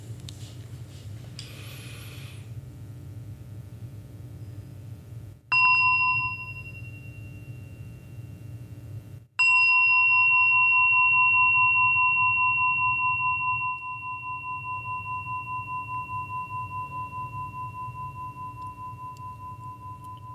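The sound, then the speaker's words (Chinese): A meditation bell is struck twice. The first ring fades quickly, and the second rings out with a long, clear, sustained tone that slowly decays over a low background hum. “在我们啊听第二首之前，我们来一起听一下钟声。”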